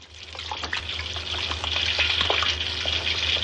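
Running water splashes steadily at a sink, with small clinks and irregular splatters as something is rinsed under the flow; close and continuous, growing a bit louder, no voices.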